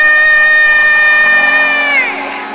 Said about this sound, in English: Thank you because the shout of victory will resound in this place. From the north to the south, from the east to the west, shouts of victory, shouts of victory, shouts of victory, shouts of victory, shouts of victory.